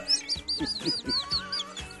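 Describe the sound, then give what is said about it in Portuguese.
A voice mimics a frightened bird, letting out a quick run of about eight high, shrill chirps over two seconds, fairly loud, with no talking. “Como é piar de medo?”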